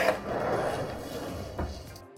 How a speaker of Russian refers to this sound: Это сейчас было очень громко. Прости, просто мне нужно было физически отключить кнопочку на моем голосовом помощнике, чтобы он э, не реагировал на мои команды, потому что мы сейчас, естественно, поговорим о Яндекс станции.